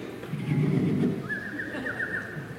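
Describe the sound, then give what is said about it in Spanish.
Little birds sing at 5 in the morning with no voices present: a low dove-like cooing comes first, then a thin, high whistled call repeats in quick warbling notes. “Ya se los cuenta lo que es los pajaritos en la mañana. Y que son a las 5 de la mañana. Y están ellos.”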